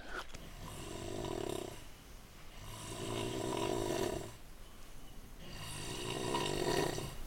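Heavy, rattling snores in a hostel dormitory rise and fall in three long cycles, each loud, rumbling breath separated by a brief quieter pause, with no talk.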